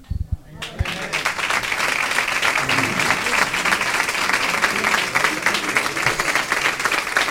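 A crowd breaks into sustained applause after a brief quiet moment, dense and steady clapping filling the room for several seconds without letting up.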